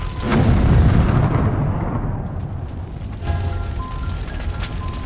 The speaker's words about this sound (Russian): и через три минуты раздается взрыв.